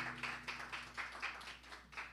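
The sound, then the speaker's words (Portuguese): An audience claps loudly for the Lord Jesus, together in a steady, brisk rhythm, about four claps per second, the sharp hand slaps blending into one even beat with no voices over it. “aplaudir bem forte o Senhor Jesus.”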